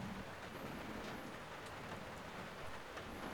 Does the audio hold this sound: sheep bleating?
no